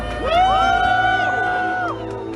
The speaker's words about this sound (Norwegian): Ute ved flyplassen så var det jo full jubel da hun landet, selv om det også er mange på Taiwan som nok er mer lunkne til hele dette besøket, fordi de føler seg brukt som kort i et eh, stormaktsspill.